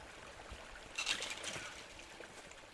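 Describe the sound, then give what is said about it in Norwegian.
A small stream trickles and babbles softly as journalists cross it on foot, a steady watery hiss that swells briefly in the middle before settling back to a gentle, continuous flow. “Så journalistene fra VG går over en bekk, over et strømgjerde og gjennom en skog”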